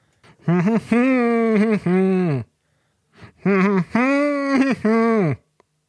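A single voice sings two sustained melodic phrases of a 1970s rock song without accompaniment, separated by a short pause, fairly loud.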